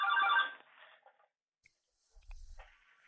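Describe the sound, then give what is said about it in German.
A telephone rings in the background, a short bright electronic burst at the start followed by quieter, fainter ringing tones and a low thump, with no one talking. “Da lautet ja. jetzt noch im Hintergrund das Telefon, aber das ja, haben, wir, haben Sie vielleicht jetzt behoben.”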